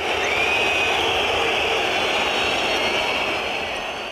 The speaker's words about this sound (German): Ein gellendes Pfeifkonzert kam da von den Rängen